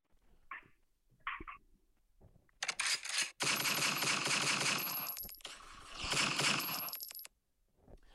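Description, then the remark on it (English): Two faint mechanical clicks, then a loud gunshot that erupts into several seconds of harsh, crackling blast noise with rapid sharp transients before cutting off abruptly. No one speaks. “That was a gunshot.”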